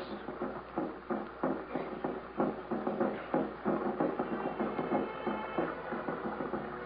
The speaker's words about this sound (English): But all through the day, from near at times or far away, we could hear the drums.